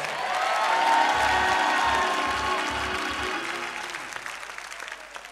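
A large crowd claps and cheers loudly, dense applause with whoops and shouts rising at once, then gradually thinning and fading over a few seconds.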